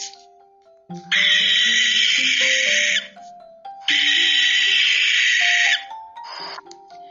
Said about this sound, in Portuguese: Tem também os bichos que ficam escondidos, e só se percebe usando os nossos ouvidos, como as corujas.